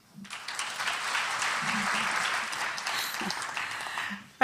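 Sustained audience applause welcoming Sister Joan Chittister before she speaks on spirituality and culture, a dense, steady patter of many hands clapping at even loudness for several seconds before tapering off at the end.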